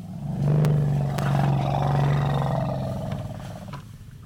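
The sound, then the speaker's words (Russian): A deep, sustained elephant rumble as a polite greeting, loud, holding a low throbbing tone for about four seconds before easing off, with no one talking over it. “Нет, нет, это не трактор, который едет на вас, это опять вежливое приветствие. Не забудьте вежливо ответить слону, если встретите его где-нибудь.”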